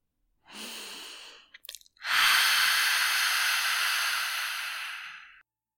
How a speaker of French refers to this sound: Et à l'expiration, imaginez que vous faites de la buée sur un miroir. Ouvrez la bouche et expirez avec le son A.